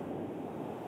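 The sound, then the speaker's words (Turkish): Steady, rushing wind noise buffets a phone caller's microphone, a dense low roar that stays loud and unbroken for the whole second with no voices over it. “Ee, o ses böyle bir gidiyor bir geliyor filan o rüzgar sesi.”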